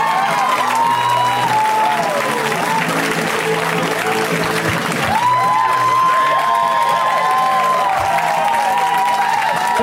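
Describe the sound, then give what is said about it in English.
A crowd applauds steadily and loudly for the full stretch, welcoming comedian Hannibal Buress, with whoops and cheers rising over the clapping and a few shouted voices mixed into the din. “So let's hear right now for Hannibal Buress, guys. Give it up for Hannibal.”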